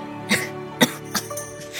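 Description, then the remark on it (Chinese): An elderly woman, the old princess consort, coughs heavily in a series of four or five harsh, raspy bursts, uneven in spacing and fairly loud, with no talking. “说完，老王妃又重重的咳嗽起来。”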